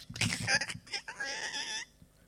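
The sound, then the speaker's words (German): A voice imitates a window squeegee used for cleaning windows, with high, squeaky, wavering squeals, a few short bursts and then one drawn-out squeak, fairly loud, ending in quiet. “Auf jeden Fall, sie nimmt dieses Teil also zum Abziehen und alles, was du hörst, ist.”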